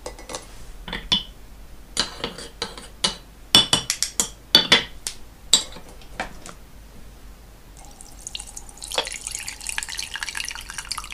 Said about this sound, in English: I think I need to pour some tea.